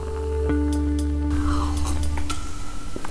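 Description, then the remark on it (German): A short, wet slurp of someone sipping a hot drink, over a steady low hum with a few faint clicks and no speech. “Vielleicht hat man das Schlürfen gerade schon gehört.”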